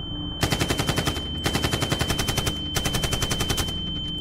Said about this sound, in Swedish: Sen började ett avvikande ljud höras bland alla glada människor som skrattade, dansade och skålade. Det lät som fyrverkerier. DJn sänkte musiken. Skottlossning.